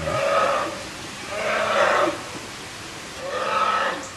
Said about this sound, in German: Eisbärbabys, die weinen. Klingt so ein bisschen Und nach. Da weinen jetzt gerade 20, 30.000 von denen. Das klingt so ein bisschen eher so nach Magenverstimmung, eher so ein Grummeln eher so. Also Grummeln, Grummeln ja, bis aber Schreien.